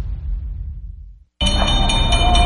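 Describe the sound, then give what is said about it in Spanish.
A garbage truck's bell rings in a steady run of bright, metallic strikes over a dense background roar, following a low engine-like rumble and a brief moment of silence. No one speaks. “Estaba haciendo limpieza cuando escuché la campana del camión de la basura.”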